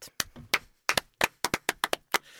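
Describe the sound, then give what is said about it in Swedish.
Brief applause from what sounds like one or two people: about a dozen sharp, crisp hand claps at a quick, slightly uneven pace, with no voices. “Värt en applåd.”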